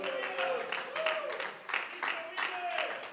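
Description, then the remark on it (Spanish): Sustained applause from an audience, a dense, steady patter of many hands clapping, with faint voices and brief tonal calls rising over it throughout. “Y si ese aplauso es para Él, creo que hay que hacerlo con el alma.”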